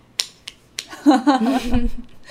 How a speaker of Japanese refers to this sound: うわすごいですね。すごいまずこの事実に拍手しよう